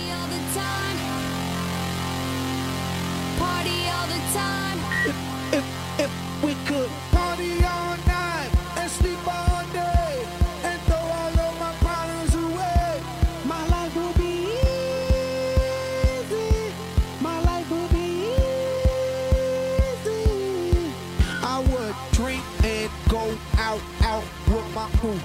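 A dance-pop track with a hip-hop feel opens on sustained synth chords, then a heavy thumping kick and deep bass kick in with a steady pulse under bright synth melodies. No vocals yet.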